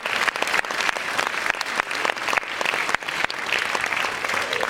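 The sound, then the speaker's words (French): An audience claps steadily for a film festival jury as it is introduced, a dense wash of many hands with sharp individual claps popping out, sustained at an even loudness for the whole stretch. “Euh, merci de les applaudir.”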